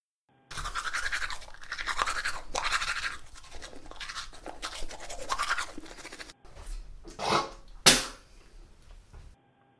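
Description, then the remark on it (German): A toothbrush scrubs teeth in quick, repeated back-and-forth strokes, a bristly swishing that pauses briefly, then a few sharper scrapes and a final clack near the end. No talking. “Zieh dich an, putze die Zähne und dann geht's ab in den Park.”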